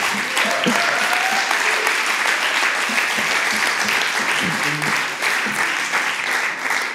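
A crowd claps steadily and loudly for the full length, a dense wash of many hands filling the room, with faint voices and a few cheers mixed in underneath.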